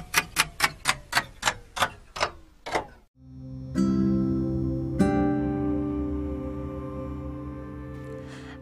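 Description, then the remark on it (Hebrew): An alarm clock ticks about nine times in a quick, steady rhythm, then after a brief pause breaks into a loud, sustained metallic ringing that slowly fades toward the end. No voices. “נחזור לאותו יום ראשון כשהשעון המעורר מצלצל, שבע וחצי בבוקר.”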